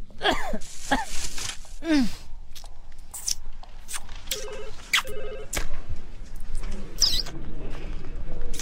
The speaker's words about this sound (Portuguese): Você não sabe chupar bala sem fazer barulho, meu? Aposto que você tá fazendo isso só pra me irritar, meu.